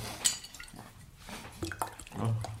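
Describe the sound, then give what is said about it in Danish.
Water is poured into a glass, starting with a sharp clink, then an uneven trickle that swells into a fuller gurgle near the end, with no talking. “Så skal I have mere drik? Jeg skal lige have mere vand.”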